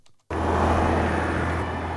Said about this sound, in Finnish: Autot matelevat ruuhkaisella Berliinin Alexanderplatzilla.